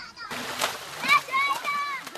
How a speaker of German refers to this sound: Und in den Bewässerungskanälen baden die Kinder, springen und schwimmen nackt im Wasser herum.